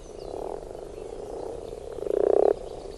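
A chorus of frogs croaks steadily at a small pond in the morning during spawning, with many spawn clumps in the water, a low continuous churring with one louder, rising burst of rapid pulsed croaking near the end; no one speaks.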